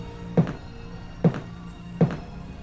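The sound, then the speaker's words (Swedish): Three slow, heavy footsteps thud at an even pace, each a deep, booming impact with a short tail, standing out clearly over a quiet background with no talking. “När han står och eldar så kommer där två stora stenblock mot byggnaden som sätter sig och sen hör du de tunga stegen igen.”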